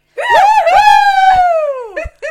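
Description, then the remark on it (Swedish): A woman, leaning a little away from the microphone, lets out one long, high-pitched scream lasting about two seconds, wavering then sliding downward at the end, followed by a short vocal burst. No talking. “Nu får du skrika”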